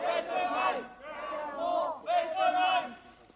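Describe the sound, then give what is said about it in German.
A French-German protest crowd against the Fessenheim nuclear power plant in Alsace chants slogans such as "Abschalten!" (shut it down) in unison, three loud rhythmic shouted bursts rising and falling, energetic with many voices blending together. “So hört sich der französisch-deutsche Protest gegen das Atomkraftwerk Fessenheim an, Frankreichs ältestes AKW.”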